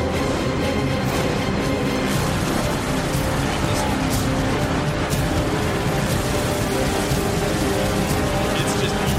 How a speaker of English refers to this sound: got a little build up, but give it a second here. This is when the storm is coming. In fact, the song is called "…."